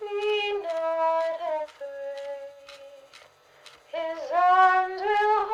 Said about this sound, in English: In the darkness, we hear a song.